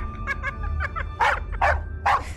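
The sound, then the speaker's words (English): A puppy that serves as a test platform for a holographic emitter system yips several times in quick, high-pitched bursts, softer at first, then three louder, sharper barks, all over a faint steady low hum. “The pup is also a test platform for a holographic emitter system that we're working on.”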